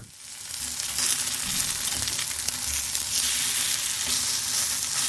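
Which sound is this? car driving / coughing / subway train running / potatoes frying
potatoes frying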